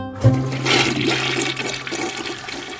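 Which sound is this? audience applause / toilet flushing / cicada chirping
toilet flushing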